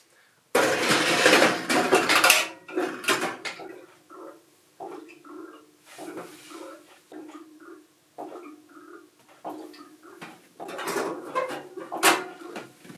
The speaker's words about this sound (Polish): Dźwięki jakby piecek wypijał to paliwo z zbiornika.